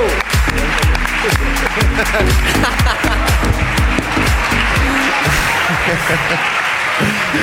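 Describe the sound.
Loud audience applause, a dense crowd of hands clapping steadily for several seconds, with voices calling out underneath. The sharp individual claps blur into a softer wash toward the end.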